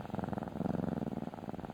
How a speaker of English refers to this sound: To many pet lovers, the purr of a cat is the sound of pure contentment.